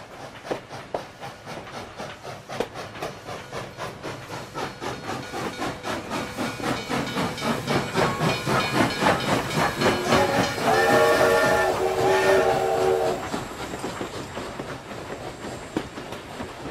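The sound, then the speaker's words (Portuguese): A train travelling from Berlin to Switzerland rumbles along the rails with a steady rhythmic clatter, growing louder toward the middle, where high squealing and whistle-like tones ring out before fading back to the running noise. “Vou aproveitar para passear um pouco em Berlim antes de pegar um trem para a Suíça e conhecer novos imigrantes.”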